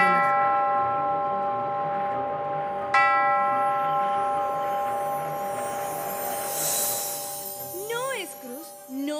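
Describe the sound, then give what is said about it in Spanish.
Bells ring with long, resonant tones, struck at the start and again a few seconds later, their chime hanging in the air throughout before a brief swooping sound near the end. “Las ventanas se abren con el viento y suenan las campanas del”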